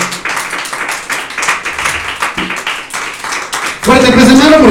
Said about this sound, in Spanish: Me, dice amén, está conmigo, la ofrenda de palmas al Señor que es con todo su corazón.